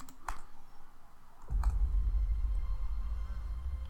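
A couple of crisp mouse clicks, over a second apart, made on a count of three to start playback. A low, steady rumble of playback kicks in just before the second click and continues underneath it.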